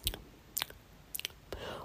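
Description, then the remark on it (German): Soft, wet mouth smacks, ASMR style, come in four quick bursts of clicky lip and tongue sounds. The last burst trails into a faint breathy hiss. “es geht darum, durch Nutzung von, von Sound, also sei es ein, ein, ein Schmatzen zum Beispiel”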